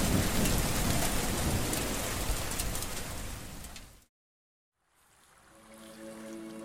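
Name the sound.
rain falling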